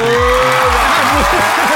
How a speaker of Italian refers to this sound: Appena stavo per dire, eh, eh, di fronte a me il DJ si sentiva già l'applauso che arrivava.